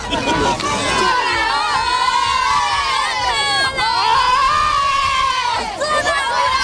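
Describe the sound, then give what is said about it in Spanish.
A dense crowd cheers and shouts continuously at midnight at the Tarajal and Benienzar land border crossings of Ceuta and Melilla with Morocco, many overlapping voices forming a loud, steady roar with high excited calls rising above it, briefly dipping twice before surging again. “sonido de esta medianoche cuando se agolpaban muchas personas en el Tarajal y en Benienzar, algunos que para no perderse el momento, curiosos y otros para reencontrarse con familiares a los que no veían desde hace dos años, algo más de dos años.”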